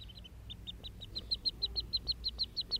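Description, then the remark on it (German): A rapid series of soft, high greeting peeps from a teal duckling back together with its siblings, evenly spaced and growing slightly louder, over a low background hum with no talking. “Und nun ist sie mit ihrem Geschwister zusammengesetzt und wir hören jetzt das leise Flüstern der Begrüßung”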